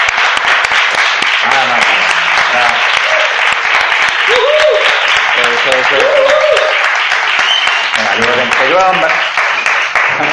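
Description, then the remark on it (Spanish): A large audience applauds loudly and steadily for about ten seconds, dense clapping filling the room, with scattered cheers and shouting voices rising over it. “Un aplauso, por favor, para mí.”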